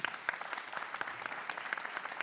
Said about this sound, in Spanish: Un aplauso, muchas gracias.